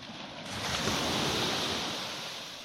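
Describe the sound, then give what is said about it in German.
Ocean waves surge onto a long beach on a peninsula in New Zealand with a broad, hissing roar that builds and slowly recedes, steady, with a bit of wind noise and no voices. “Dort sitzt ein einsamer Barista in seinem kleinen Häuschen, damit du beim Rauschen der Wellen einen leckeren neuseeländischen Kaffee genießen kannst.”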